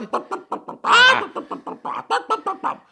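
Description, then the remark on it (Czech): A mother imitates a hen, making a steady run of short clucks with one longer, louder squawk near the start, then more evenly spaced clucks. “Mame, promiň, ale opravdu ty kdákáš.”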